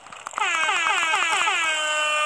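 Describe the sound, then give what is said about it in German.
A video game horn honks in one sustained, slightly wavering blast that starts after a brief stuttered onset and holds loud and steady to the end, with no talking over it. “Das ist meine Hupe.”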